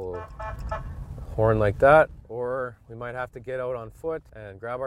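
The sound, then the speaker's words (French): A vehicle horn honks in a series of loud blasts, several short toots in an uneven rhythm, following a quieter stretch of what sounds like a brief voice; the horn is used to scare off a bear in a village of 800 inhabitants. “Parfois, le simple klaxon du véhicule suffit.”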